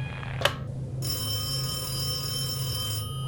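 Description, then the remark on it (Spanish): A telephone rings again with a bright electronic trill lasting about two seconds over a low steady hum, after a brief click near the start. No one speaks. “Pero volvió a sonar y de nuevo contestó.”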